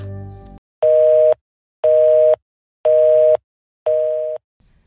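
A telephone busy tone after a hang-up: four loud, evenly spaced electronic beeps, each about three-quarters of a second long with equal silent gaps, following a brief click of the call ending.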